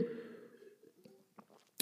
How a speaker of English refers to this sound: Give me a minute. I needed a sip.